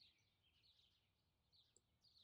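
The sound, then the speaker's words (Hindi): Faint, high-pitched bird song from a myna, wavering chirps and trills rising and falling over a low background hum, with a brief pause before the singing resumes near the end. “आपको देखकर अचानक मैना शांत हो जाती है उनका संगीत रुक जाता है फिर आपको शांत बैठा देखकर वो बेफिक्र हो जाती है फिर से वही चहचहाहट”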